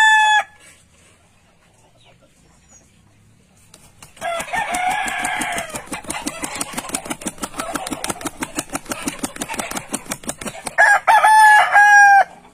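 At a cockfight in Thomo, Cambodia, a rooster's crow is cut off at the start, then a rapid, steady rhythmic clatter runs underneath before a loud, drawn-out cock-a-doodle-doo crow rings out near the end. No one speaks.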